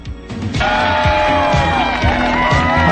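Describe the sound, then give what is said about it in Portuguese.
A loud crowd bursts into applause and cheering after a brief moment, with whoops and shouting voices rising over sustained clapping until the end. “Quando a gente vê um centro de excelência ser colocado dessa forma e de fato sair do papel, eu fico só, tenho que dizer, aplausos.”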